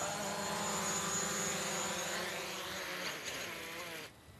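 A small multirotor camera drone hovers, its propellers giving off a steady, high-pitched whining buzz with shifting tones, cutting off abruptly near the end.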